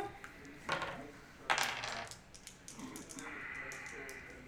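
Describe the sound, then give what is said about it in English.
Dice clatter across a hard tabletop in two quick bursts as players make a listen roll in a game, a short rattle followed by a louder tumble that settles, with a low murmur of room noise underneath. “Make another listen roll, everybody.”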